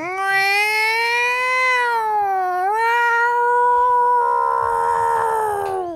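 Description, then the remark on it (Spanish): A cat gives one long, drawn-out meow lasting several seconds, loud, its pitch sliding down then rising and holding steady, like a wailing yowl with no talking. “Te va a maullar bajo la lluvia.”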